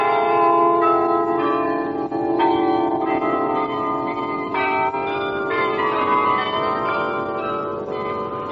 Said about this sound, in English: on Aspen Island in the lake is a 53 bell carillon presented to Canberra by the British government to commemorate the city's half century. Three concrete towers faced with white quartz support the bells which can be heard regularly across the lake.